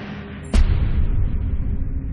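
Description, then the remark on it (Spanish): A single sharp, loud gunshot cracks out near the start, followed by a deep, sustained rumbling boom that lingers to the end. No one speaks. The shots are fired by the socialist revolutionary Fanny Kaplan in an attack on Lenin, hitting him in the shoulder and a lung. “Sus disparos le alcanzan en el hombro y en un pulmón.”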